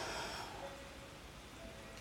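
Steady, hissing heavy rainfall with a dense, even wash of noise and no distinct drops standing out, fairly soft in level and continuous throughout, with no voices.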